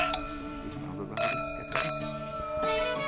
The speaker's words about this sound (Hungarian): Ez a hang minden borkedvelő számára kedvesen cseng. Két pohár koccanásának hangja általában nagy találkozások, jó beszélgetések, ünnepek során szólal meg.